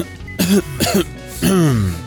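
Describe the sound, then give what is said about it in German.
A man gives a few short, seemingly embarrassed coughs and throat-clears, three voiced bursts with brief pauses between, the last one drawn out and trailing off. “Der Mann hustete scheinbar verlegen, wischt sich Schweiß von der Stirn und lächelt schief.”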